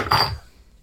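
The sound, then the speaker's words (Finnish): A bottle of Vakka-Suomen Panimo Oktoberfest full-malt beer is opened, giving a short, soft hiss of escaping gas that fades quickly into quiet. The fizz is brief and fairly weak, with no talking. “aika löysä sihahdus.”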